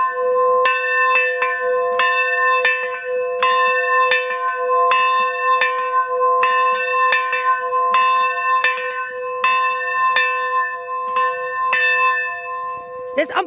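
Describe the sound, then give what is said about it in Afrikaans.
A church bell outside the church, rung every day at 12 noon by a church worker, rings out loudly and steadily, its strokes repeating at a regular pace with long, shimmering overtones that overlap and hum between strikes. “wat uniek is aan die kerk is dat die klok buitekant elke dag om 12 uur gelei word.”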